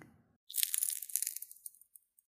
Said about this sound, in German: Habt ihr es gehört? Das ist das Knistern des Kluntjes, wenn der heiße Tee darüber gegossen wird.